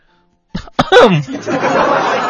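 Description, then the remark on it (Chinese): After a moment of silence, a person performs a polite, moderate-volume sneeze: two quick breathy catches, a short voiced burst that falls in pitch, then a soft, trailing hiss of air. It illustrates the cautious sneezer type, who sneezes politely and elegantly. “这第三种打喷嚏类型呢，叫做谨慎型喷嚏者，打喷嚏的方式很有礼貌、优雅，声音适中”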